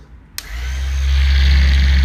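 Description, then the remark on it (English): A plugged-in random orbit waxer and polisher switches on with a click and quickly spins up into a steady, loud whirring hum, low and droning. It is being used to buff the body to ease muscle tension. “it's a uh, random orbit waxer and polisher”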